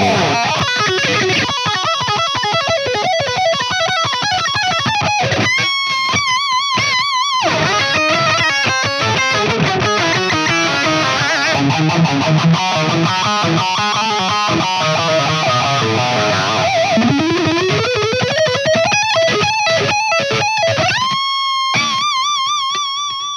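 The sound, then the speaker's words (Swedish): Electric guitar played through a small Face 95 fuzz pedal, stomped on at the start and used throughout, with no reverb or delay, giving a thick, fuzzy, saturated tone. Busy riffs and sustained, bending notes continue loudly without pause and with no voices. “Nu är det ju en Face 95 där som är med hela tiden.”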